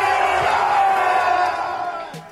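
A large crowd cheers and yells loudly in a sustained roar as a four-year-old boy is crowned winner of a foam pool noodle battle among people named Josh, voices blending into a dense wash of shouting that tapers slightly toward the end.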